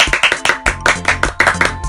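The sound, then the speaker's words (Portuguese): Several people gathered around the rose clap for the king together in a quick, steady rhythm of sharp, loud claps, with no voices over them. “E todos que estavam lá em volta da rosa bateram palmas para o rei.”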